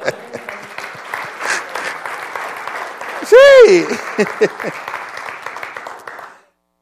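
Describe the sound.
A crowd claps steadily for several seconds, dense and fairly loud, while a voice calls out briefly midway; the applause then cuts off abruptly.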